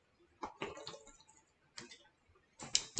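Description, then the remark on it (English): Someone takes a drink of water: a few soft, clicky gulps and swallows in short bursts separated by brief pauses, with no talking. “So, so, so, I keep apologizing for this. I'm so sorry. I never drink my water, by the way.”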